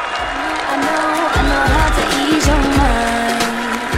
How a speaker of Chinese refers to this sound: 让我们用热烈的掌声欢迎一下吧！